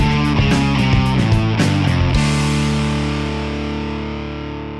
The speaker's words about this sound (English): This sound is actually not audible to the human ear, but two sets of sensors on the spacecraft seismometer detected ground vibrations, then sped it up to make it possible to hear. The InSight mission launched nearly a year ago on May 5th, 2018.